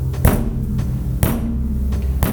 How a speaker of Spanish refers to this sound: Olga, asustada, no sabía por qué sus perros se escondían, cuando de pronto alguien tocó la puerta.